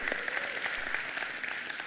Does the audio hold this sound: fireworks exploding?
no